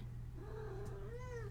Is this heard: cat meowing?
yes